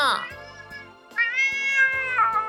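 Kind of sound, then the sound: animal, cat meowing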